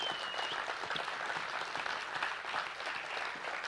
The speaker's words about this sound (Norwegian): Ja, det er verdt å gi en applaus for.